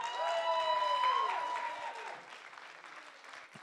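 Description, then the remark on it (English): A church audience at New Year breaks into a dense wash of hand clapping for the Lord, mixed with a few rising and falling whoops of cheering, then the applause gradually thins and fades over a few seconds. “We can give the Lord a hand clap, can't we?”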